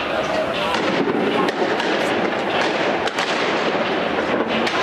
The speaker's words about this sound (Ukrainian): Мітингарі закидують правоохоронців бруківкою та піротехнікою. У відповідь йдуть світло-шумові гранати та сльозогінний газ.